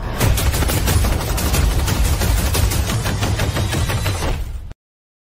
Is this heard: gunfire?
yes